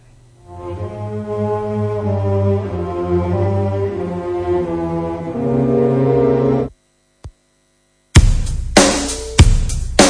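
Sustained, droning chords play for several seconds and cut off abruptly. After a brief silence and a click, a loud rock song bursts in with heavy drums and full band.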